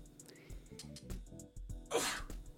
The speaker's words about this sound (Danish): Uha, jeg håber ikke, I kunne høre det nys, men det var, det var et nys.